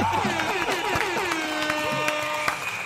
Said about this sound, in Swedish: Vi slänger det ut en applåd och en tuta till IT-killen Hackern Brutti.